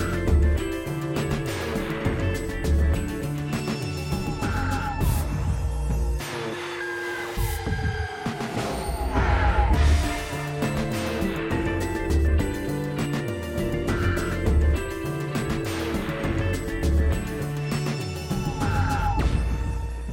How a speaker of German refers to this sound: piept und fiebt alles nur. Es ist geil. Es ist eine schöne Mischung aus Pop und Klassik.